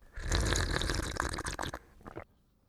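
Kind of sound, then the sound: food or drink, slurping soup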